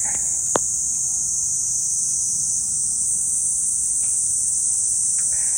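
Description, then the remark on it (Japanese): Cicadas drone in a park on a summer day, a loud, unbroken high-pitched buzz that fills the whole stretch, steady, with one brief click near the start and no voices. “わあセミがうるさいですかしょうがないんですけど。”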